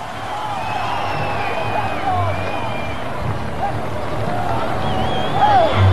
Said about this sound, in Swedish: Nu har Ottosson gjort mål igen på Stora Valla inför säkert 6000 åskådare som jublar vilt.